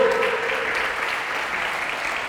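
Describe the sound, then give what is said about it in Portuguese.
Audience applause for a man at a church service, a steady dense wash of many hands clapping at an even level for the whole stretch, with no voices standing out above it. “Dá um aplauso a ele aí, pelo amor de Deus.”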